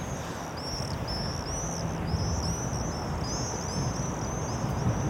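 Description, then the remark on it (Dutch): A flock of some 20 to 30 swarming birds screams overhead, shrill high calls overlapping almost continuously against a steady background hiss, with no one speaking. “En ze, en ze zwermen en ze schreeuwen ook echt.”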